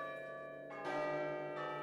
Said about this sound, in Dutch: Hij trachtte de duisternis te doorboren met zijn frette ogen toen het carillon van een kerk in de omgeving de vier kwartieren speelde. Dus wachtte hij het hele uur af.